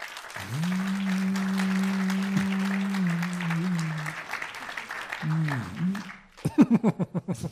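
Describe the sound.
A live audience applauds a participant and her question in a steady wash of clapping, with a long, low held tone running through it and a voice briefly heard, then a burst of sharper, rhythmic claps at the end.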